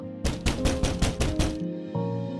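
A rapid series of about seven sharp knocks on a wooden door, made by a friend early in the morning, evenly spaced and fairly loud, over a steady droning musical background that continues after the knocking stops.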